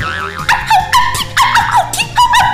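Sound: dog howling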